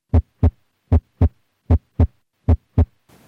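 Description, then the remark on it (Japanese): Four clear normal heartbeats in a steady rhythm, each a pair of soft thumps, with the second heart sound of each beat faintly split, with no talking. “ところがこれは5期と9期では分裂の幅が違うということが分かっていますちょっと正常な2音の分裂を聞いてみたいと思います”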